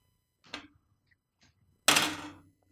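Dice clatter across a tabletop for a stealth roll in a role-playing game, landing on 19: a brief knock first, then a louder, longer rattling roll that fades out. No voices.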